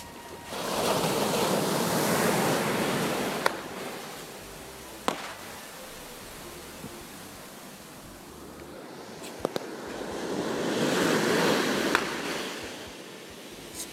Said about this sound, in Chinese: 然后对面就是大海，大海，然后星空漫漫步，然后我就有录他们海边的这种海浪声，包括有人在那放焰火。